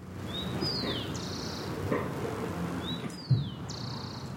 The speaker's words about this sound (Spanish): Vuelvo a hacer este podcast en la calle, en la movilidad, al aire libre. ¿Oyes por ahí un pajarito?